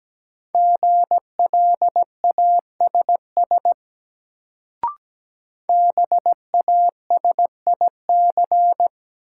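Morse code sent as a steady mid-pitched tone at 17 words per minute for a new word drill, in two bursts of quick dits and dahs separated by a pause with a single soft click.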